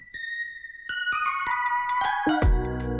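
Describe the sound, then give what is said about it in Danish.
A short musical jingle with bright, chiming tones rising in a quick melodic run, ending on a loud, full chord. No voices are heard. “Vi skal lige have en jingle.”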